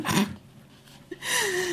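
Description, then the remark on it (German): A harsh, breathy throat-clearing burst opens, then a short pause, followed by a drawn-out voiced rasp that slides down in pitch, fairly loud, with no speech. “Ich räuspere so.”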